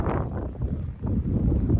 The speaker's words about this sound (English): It's a little windy out here today in Missouri.